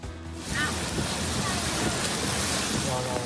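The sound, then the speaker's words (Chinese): A steady, loud rush of churning water as cars drive through a flooded road in Japan's Kanto region during a sudden evening thunderstorm, throwing up spray, continuing without a break after a short quiet start. “汽车开过路面，掀起阵阵浪花，马路淹成小河，民众开车上路险象环生。”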